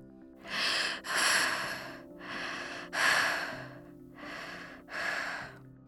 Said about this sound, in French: Tout étourdi, Alphonse se relève grâce au coup de main d'Alizé qui, arrivé quelques secondes après son frère, tente encore de reprendre son souffle.